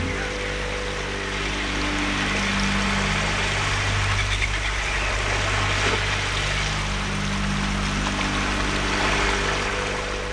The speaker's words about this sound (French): Écoutez le doux murmure de l'eau qui glisse tout le long de votre navire.